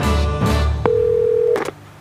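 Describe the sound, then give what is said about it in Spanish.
A telephone call to the police rings once with a steady electronic tone lasting under a second, surrounded by a dense, buzzy background hum; no one speaks. “El teléfono sonó y sonó hasta que contestó el sargento Federico Schnauzer, que preguntó.”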